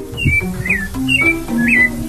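A sabiá thrush sings a few clear, fluting whistled phrases in quick succession, bright, over a steady low background rumble.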